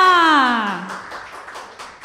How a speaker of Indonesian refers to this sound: Tepuk tangan dulu dong